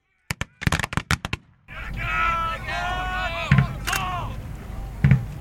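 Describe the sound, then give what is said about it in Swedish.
A ragged musket volley from infantry reenactors portraying Carolean soldiers in a field battle demonstration: about seven sharp, loud reports cracking in quick succession, then a murmuring crowd and voices talking, with a couple of duller thumps. “De här musketerarna har nu skjutit sitt skott och de vapnen är nu tomma.”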